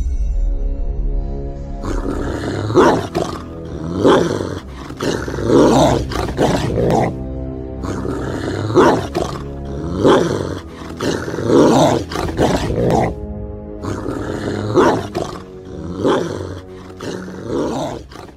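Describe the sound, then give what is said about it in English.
A military working dog snarls and growls ferociously during a bite attack demonstration, in loud, repeated bursts with brief pauses between them, sustained for several seconds with no talking. “This concludes our military working dogs demonstration for our audience.”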